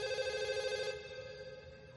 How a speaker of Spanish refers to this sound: En el hangar el teléfono suena.